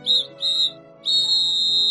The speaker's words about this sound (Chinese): 紧急集合哨子声响起，孙小空和小天天噌的从床上跳起来，穿上衣服，登上鞋子，就跑向操场列队。